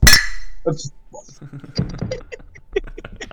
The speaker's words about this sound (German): Wir stoßen einfach jetzt kollektiv drauf an. Jawohl. Ja. Drei, zwei, Cheers. eins.